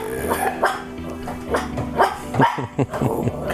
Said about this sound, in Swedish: Är de Yorkshire terrier? Ja. De är vakthundar?